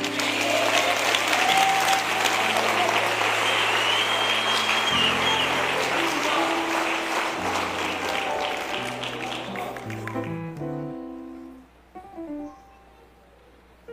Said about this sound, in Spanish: Puedes darle un aplauso a Jesús por eso.